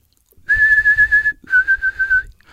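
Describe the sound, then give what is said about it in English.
Two sustained, steady whistled notes with a slight tremolo, the first about a second long and the second a bit shorter after a brief pause, fairly loud with no speech; a person whistling to call an animal out of its den. “But I do this uh, whistle with animals.”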